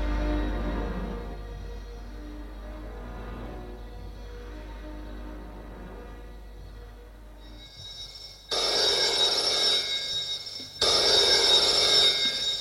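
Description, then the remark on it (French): An old-fashioned telephone bell rings loudly twice in long, rattling bursts after several seconds of quiet low hum, with a short pause between the rings. “Le téléphone sonne.”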